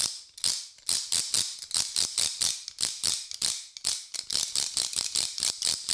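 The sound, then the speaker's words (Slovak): A wooden slat clapper, its boards joined by strings and held by handles at each end, is rattled by bringing the hands together as if clapping, giving quick, steady bursts of dry clacks, about three or four per second, fairly loud, with no voices over it. “Má také rôzne doštičky, tie sú pospájané rôznymi povrázkami.”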